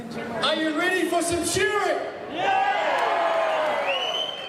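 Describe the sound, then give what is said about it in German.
A stadium crowd at a sheep-shearing competition cheers and shouts after the announcer asks if they are ready for some shearing, a dense wash of overlapping voices, loud and sustained, dipping briefly midway before surging again. “Das Stadion jubelt.”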